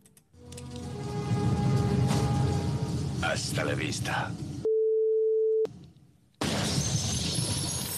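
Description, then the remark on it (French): A single steady censor beep, about a second long, replacing a word, abruptly cuts into loud, busy film audio with voices, then a short silence before the noisy scene resumes. “Alors, je cherche le mot qui est remplacé par le bip.”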